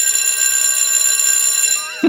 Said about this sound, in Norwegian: Og for mm. dere som ikke hørte hvor det var, så var det jo skoleklokka som ringte ut til sommerferie.